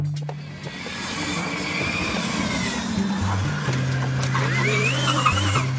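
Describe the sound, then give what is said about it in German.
Student-built electric race cars at a Formula Student competition pull away from the start with a rising electric whine and steady hum, tones sweeping upward as they accelerate, a continuous loud mechanical drone without engine roar, no voices. “Und wenn diese elektrischen Autos dann vom Start gehen, dann klingt das so.”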